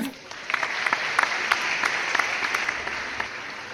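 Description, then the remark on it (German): A crowd applauds steadily, a dense wash of many hands clapping with scattered sharper claps standing out, fairly loud and continuous throughout with no voices; an applause sound effect added afterwards to welcome a guest. “Hallo, vielen Dank für diesen vielen Applaus, den ich jetzt von euch hier höre.”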